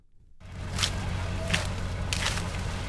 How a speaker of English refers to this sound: That's the sound of sweet corn brand name Olathe Sweet being picked by hand outside of Olathe, a tiny community best known for this crop.